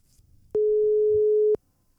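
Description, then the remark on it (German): A single steady telephone ringing tone as a call is placed back to the Eiskratzer, one sustained mid-pitched beep lasting about a second, loud and clean against near silence with faint low rumble. “Es klingelt.”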